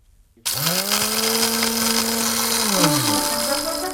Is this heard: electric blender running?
yes